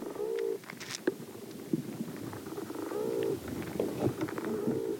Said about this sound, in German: Was man hört, sind die Bodentiere. Die machen natürlich Geräusche, wenn sie sich bewegen oder fressen, das ist das eine. Aber was viel faszinierender ist, dass sie natürlich auch akustisch miteinander kommunizieren.